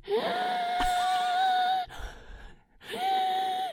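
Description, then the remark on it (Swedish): A person imitates a sleeping man's nose whistling on the in-breath: two drawn-out, high nasal squeaks with breathy hiss, separated by a short pause, fairly loud. “Och då börjar näsan pipa, så här, du vet, på inandning.”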